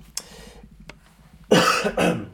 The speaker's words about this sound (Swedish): Det var så tufft så att ja. du började hosta. Jag bara hostar. Du, du, du, du fortsätter hosta.